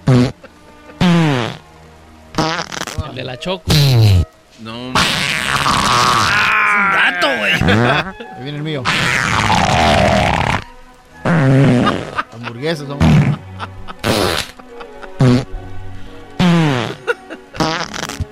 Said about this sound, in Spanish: El primer show que tiene un minuto de pedos para ustedes, señores.